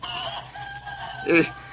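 Chickens cluck in a continuous chatter of tonal calls, capped by one louder, sharper squawk near the end; no one speaks.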